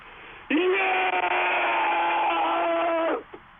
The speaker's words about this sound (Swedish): Och då är han tyst jättelänge. Jag börjar undra om han har somnat nästan där. Men så kommer det där skriket.